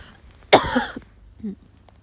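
A single sharp, loud cough bursts out, followed by a brief throaty rasp and a softer low grunt a moment later, with no talking.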